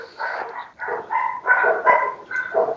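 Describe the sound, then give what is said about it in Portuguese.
A neighbour's dog barks repeatedly, about six harsh, yelping barks in quick irregular succession, heard at moderate volume with no one talking. “quem que é esse cachorro aí? De algum dos vizinhos.”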